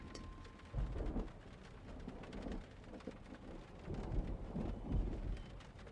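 Steady rain pours down with dense pattering across the whole stretch, while low rumbles of distant thunder swell and fade beneath it. No voices are present.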